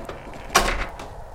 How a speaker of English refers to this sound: Reaching his apartment, he fumbled his key into the lock and slammed the door shut behind him.